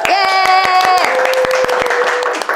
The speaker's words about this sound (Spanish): así que fuerte aplauso.